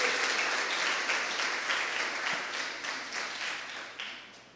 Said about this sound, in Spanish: Aplauda al Rey, por favor.